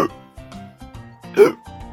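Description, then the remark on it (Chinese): A voice imitates Peppa Pig hiccupping after drinking a big glass of juice too fast, a rapid series of short voiced yelps repeating about every half second, with one louder, breathier hic near the middle, standing alone without other talk. “可是，佩奇果汁喝得太快，现在他也开始打嗝了。”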